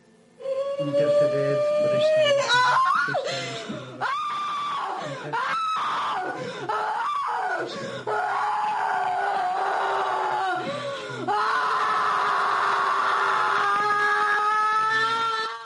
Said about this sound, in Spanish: Sabemos que eh, la posesión ha acabado cuando se produce un grito tremendo, fortísimo, estentorio, y la persona cae al suelo como muerta.